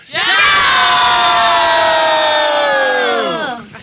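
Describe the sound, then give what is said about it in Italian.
A crowd of children shouts "Ciao!" together as a greeting after a countdown, in one long, loud, sustained call, their many voices blending into a single held cry that lasts several seconds before trailing off. “quindi faremo questo saluto eh, tipo ciao”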